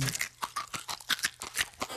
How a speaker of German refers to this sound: Das ist jetzt Rührei, sagt sie, kannst du mal sehen. Die Schale in dem Rührei, die knuspern so schön.